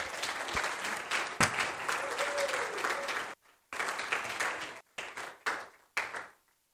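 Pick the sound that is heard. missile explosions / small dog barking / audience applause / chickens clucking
audience applause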